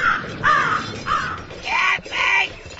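A crow caws four times in a steady series of harsh, ragged calls, loud against a faint background hiss, with no one speaking.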